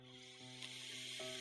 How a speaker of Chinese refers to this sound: 哗哗哗哗哗哗哗哗哗哗，瀑布的声音是凉凉的声音。